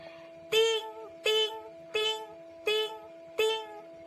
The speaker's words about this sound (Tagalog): tunog ng mga bariya at nabusog ang alkansyang baboy ni Yana